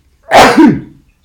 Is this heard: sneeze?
yes